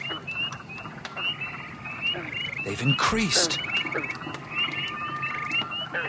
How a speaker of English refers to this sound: God, those frogs are loud.